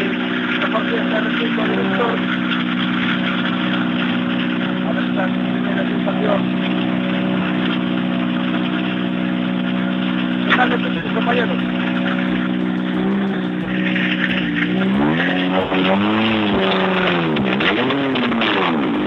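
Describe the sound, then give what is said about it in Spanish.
A rally car engine roars loudly and steadily along a rally stage, its harsh droning note holding for a long stretch before the revs rise and fall sharply through gear changes near the end. “Nos encanta escuchar el sonido bruto de estas bellas máquinas.”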